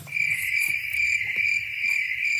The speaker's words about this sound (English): Uh, crickets.